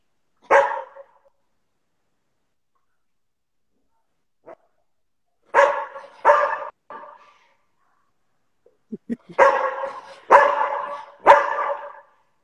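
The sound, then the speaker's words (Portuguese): A dog named Zig barks on command as its handler shows it fingers, in short groups: one sharp bark, then a pause, a quick run of two or three, another pause, and a final burst of three loud barks. “Ó, eu vou só mostrar os dedos para ele e ele vai ter que latir.”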